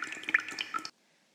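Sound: rain falling and dripping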